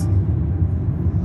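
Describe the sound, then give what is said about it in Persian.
Steady low rumble of a car cabin moving along a fairly empty highway at night, a dense engine and road drone filling the low end with little high-frequency content, continuous and fairly loud throughout. “من هستم و شما یعنی هر کس که داره این صدا رو گوش میده ما توی ماشینیم و داریم یه بزرگراهی رو که تقریبا خلوت هم هست با هم دیگه میریم هوا تاریکه”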